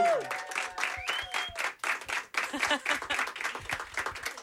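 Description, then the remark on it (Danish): A small group of about 12 people at an intimate small-stage event claps and cheers steadily for a few seconds to welcome a guest, the dense patter of hands mixed with scattered whoops and shouts, lively throughout. “Men lige nu synes jeg, vi skal lave så meget larm, som øh, 12 mennesker plus øh, det løse kan lave.”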